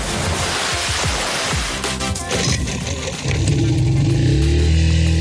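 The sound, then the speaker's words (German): Loud, rushing wind and splashing surf spray on open water during a DLRG lifeguard operation on the water, a dense roaring wash with bursts of crashing water and a low rumbling hum rising toward the end. “Action pur. Wind und die Spritzer der Gischt im Gesicht.”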